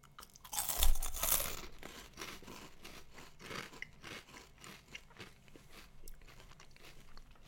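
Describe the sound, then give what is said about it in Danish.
A loud, sharp crunch as someone bites into a cheese-powdered snack stick, cut into pieces about 5 cm long, followed by several seconds of steady, crackly chewing with repeated softer crunches and no talking. “Det, er sådan, det ligner en, en gren med ost på.”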